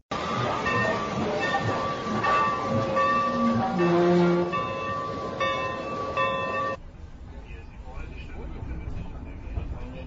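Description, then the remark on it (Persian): A train at a railway station in Berlin in 1925, from the newly dubbed soundtrack of an old film, rumbles steadily, with sustained whistling and squealing metallic tones over a busy, loud din, before the sound abruptly drops to a quieter, hissing background. “دو دقیقه چشمتون رو ببندین و با من به برلین 1925 بیاین صدایی از بام تا شام برلین از یک ایستگاه قطار تا مرکز شهر صدا مربوط به یک فیلم قدیمیه که به تازگی صدا گذاری شد”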